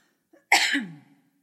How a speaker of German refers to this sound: Ich müsste mich nochmal räuspern an dieser Stelle.